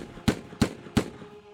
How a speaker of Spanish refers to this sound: Bresi disparó cuatro tiros con un revólver calibre 32 contra el rey de Italia